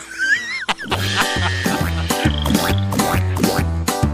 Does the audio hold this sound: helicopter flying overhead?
no